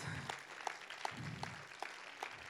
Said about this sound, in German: Ähm, gebt den beiden mal einen Applaus.